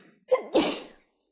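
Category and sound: human body sound, sneeze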